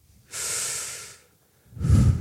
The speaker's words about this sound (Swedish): Så ni kan nästan checka av, redan nu så kan ni checka av er andning.